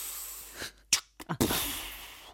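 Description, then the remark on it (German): A voice imitates bus doors opening and closing with breathy mouth noises: a short sharp puff, a couple of quick bursts, then a long steady hiss, fairly loud. “Ich habe die Türen geöffnet und geschlossen, indem ich gemacht habe, pff,”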